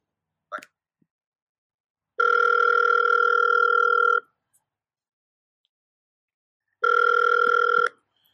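A phone line rings twice on the caller's end as a call is placed to return someone's call, each steady electronic ring lasting about two seconds with a long silent pause between, clear, preceded by a brief click.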